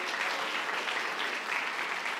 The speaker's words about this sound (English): Take your liberty. Won't you give your pastor a great hand clap of appreciation?